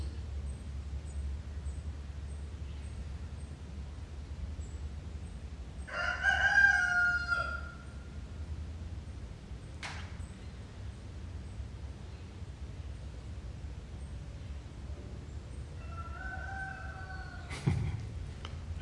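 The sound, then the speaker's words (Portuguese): Two roosters crow outside, one loud crow early on and a fainter answer later, over a steady low hum with a couple of sharp knocks. “don't know if you can hear on the internet, but there's two roosters outside crowing.”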